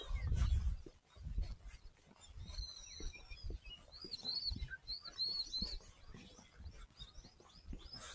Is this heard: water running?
no